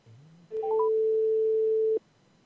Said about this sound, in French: Vous aimez entendre des sonneries Des répondeurs Elle doit être en train de courir.